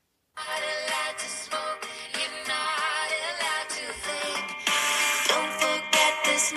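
A sung Brussels Airlines safety video song plays continuously and fairly loudly, with a melodic voice wavering over a dense musical backing, rising slightly in intensity toward the end.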